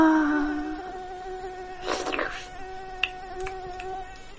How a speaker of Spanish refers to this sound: Pero de repente vi una mosca.